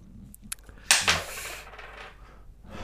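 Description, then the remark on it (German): A 2-euro coin is flicked up and lands on a hard surface: a small tick, then a bright metallic clatter with a quick second bounce, fading into quiet. “Vielleicht ist, ist die 2-Euro-Münze auf der einen Seite schwerer als auf der anderen.”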